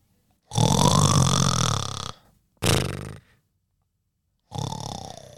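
Loud, rasping snoring: a long drawn-out snore, then a short one, then a third starting, with brief silent gaps between and no talking.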